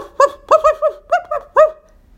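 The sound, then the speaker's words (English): A small dog, left alone in a corner of an airplane as its doors shut, barks in a quick series of about seven sharp, high yips, loud, with brief pauses between groups and no other sounds around them. “She tried barking and barking.”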